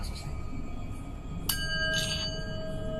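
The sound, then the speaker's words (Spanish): A singing bowl is struck once beside a tomb to invoke the energies of the place, and rings out with a steady, shimmering tone that sustains to the end, over a low background hiss. “A través de este cuenco invoco toda energía que se encuentra en este lugar.”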